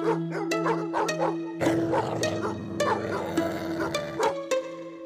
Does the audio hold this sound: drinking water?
no